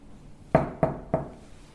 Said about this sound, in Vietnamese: Sau khi mà chúng ta gõ cửa 3 lần và chúng ta thông báo cái dịch vụ làm phòng thì chúng ta mới được phép mở cửa.